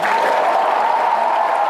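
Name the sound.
audience applause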